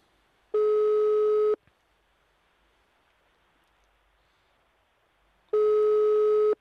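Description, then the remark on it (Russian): Two long, steady telephone ringback tones on an outgoing phone call, each about a second, separated by roughly four seconds of faint line hiss, heard through the phone line. “Это гудки.”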